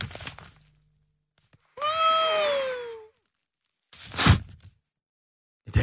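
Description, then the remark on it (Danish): A nose is blown hard for about a second, producing a thin, wavering high whistle over the rushing air, followed by a couple of short breathy puffs and sniffs. “Det lyder som om, at det er sådan en ventil fra et pivdyr.”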